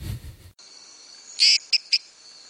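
A male frog calls with a short rasping burst followed quickly by two sharp clicks, loud, over a steady high-pitched insect-like drone in the background.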